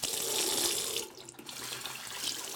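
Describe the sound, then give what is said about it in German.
Tap water runs steadily into a sink basin as a Muslim man washes himself for prayer, a continuous splashing hiss with a brief dip in the flow partway through before it picks up again. No one speaks. “lässt Wasser ins Becken laufen und wäscht sich fürs Gebet.”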